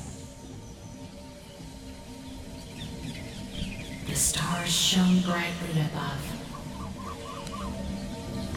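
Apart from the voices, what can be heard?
birds chirping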